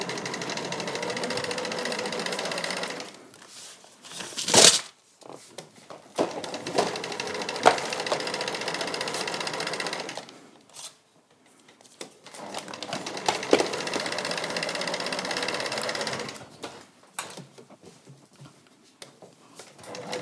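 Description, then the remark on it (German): A sewing machine stitches in three steady, whirring runs of several seconds each, broken by short pauses and a few light clicks, with no talking over it. “Während du da nähst und die Kamera auf deinem Nähding ist”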